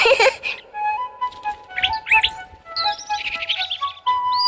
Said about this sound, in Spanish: Un águila calva. Así es.